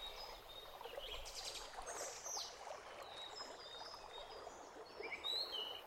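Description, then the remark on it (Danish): Small birds sitting in a tree chirp and trill in short bursts over a steady wash of softly lapping lake water, the calls scattered while the gentle waves murmur underneath throughout. “Geo sidder og lytter til søens blide bølger og fuglene, der sidder i træet og synger.”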